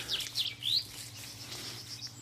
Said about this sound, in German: Die Vögel zwitschern.